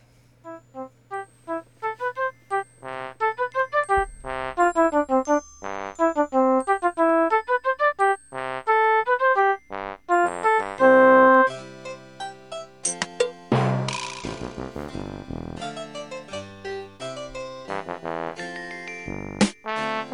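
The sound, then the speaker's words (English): Bouncy electronic video game town theme music: a plinking synth melody over a steady low bass, growing busier halfway through with buzzy, sputtering blasts of a robot farting. No one talks over it. “And this song, um, it sticks in my head because it perfectly encapsulates what that town is all about.”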